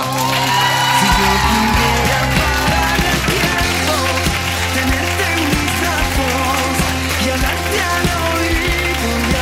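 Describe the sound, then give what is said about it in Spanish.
Loud audience applause and cheering welcoming a guest artist onto the Cadena 100 program De cerca, sustained throughout, mixed with music playing underneath; a dense, steady wall of crowd noise with no speech. “Tenemos mucha suerte de tenerle hoy en este programa porque es un artista muy generoso con Cadena 100 y vamos a recibirle con un aplauso fortísimo porque con nosotros está hoy en Cadena 100 de cerca”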